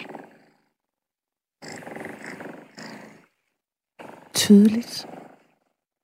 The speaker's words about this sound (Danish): men det her er lyden af en kat. Ikke bare hvilken som helst kat, men den killing, som øh, de faste lyttere hørte mig tale om den 23., hvor jeg var her sidst.